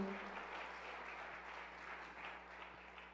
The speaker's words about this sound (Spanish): Vamos, del aplauso fuerte.